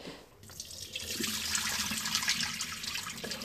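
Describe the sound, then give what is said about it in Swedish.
Water runs steadily from a tap into a sink or container as leftover water is poured out and the container is refilled, a continuous splashing rush that starts abruptly and fills the moment, with no voices. “Jag tänkte be att sätta lite vatten här. Här är lite kvar i bottnen men att hälla bort det”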